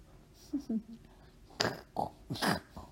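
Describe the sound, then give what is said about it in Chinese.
A voice makes a series of soft, grunting oinks in imitation of a pig, a few short low snorts followed by louder nasal bursts, with no words spoken. “…小声的学猪叫。”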